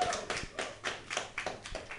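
A short burst of hand clapping, a quick run of distinct claps at a fairly steady pace, close and moderately loud, with no one talking over it.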